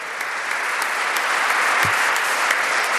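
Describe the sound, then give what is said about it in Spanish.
An audience applauds for Jesus steadily for three seconds, a dense, even wash of clapping with no pauses and no voices rising above it. “Un aplauso a Jesús.”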